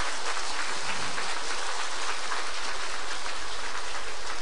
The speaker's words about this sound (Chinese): 哎，就这点掌声啊，响一点呀